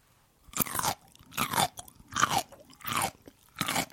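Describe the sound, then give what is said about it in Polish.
Crunchy bites and chewing of a pickle by a woman ASMR artist: five distinct wet crunches spaced roughly evenly apart, loud, with brief quiet gaps between them and no talking. “Ja mam taką artystkę, którą bardzo podziwiam, a którą wy mogliście już gdzieś zobaczyć w sieci z innych okazji, bo to jest kobieta, która może Wam się skarżyć z ogórkiem i z tym odgłosem.”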